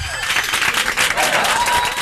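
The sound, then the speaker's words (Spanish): Dense, sustained applause like a large crowd, many hands clapping at once in a steady wash that stays loud for the whole stretch, with faint voices mixed in. “Es como Shiva, aplaude muchísimo, como si fuera un público.”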